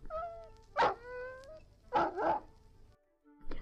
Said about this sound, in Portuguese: Ao lado dele, um cachorro uivava.